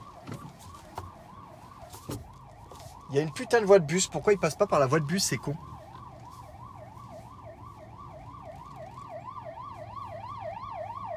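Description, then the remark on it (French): A police car siren wails in a steady rising-and-falling cycle over low traffic rumble in Luxembourg, continuing throughout while a man briefly talks over it. “Putain, les flics sont pas malins quand même en hein, Luxembourg.”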